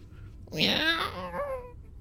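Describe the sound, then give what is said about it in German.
A human voice imitates a cat meowing behind a door: one drawn-out, wavering mew that rises and then trails off over about a second, clear against a quiet background. “Klingt, als wäre da eine Katze drin.”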